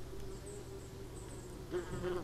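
A wasp buzzes steadily, its drone holding a constant pitch before swelling louder toward the end; no voices.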